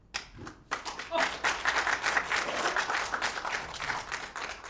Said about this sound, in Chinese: 谢谢谢后头那带头鼓掌的。省我好大事儿，要不然到这儿呢，唱完了最后一甩腔，我就可以鼓掌了啊！这后头有带头的，这就京韵大鼓这段。